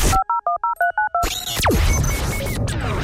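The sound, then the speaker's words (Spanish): A quick run of seven telephone keypad tones, evenly paced beeps, followed by a burst of noisy whooshing and crackling sound effects with a few high electronic pings. “Es el número telefónico ya habilitado para que te comuniques conmigo acá en cabina.”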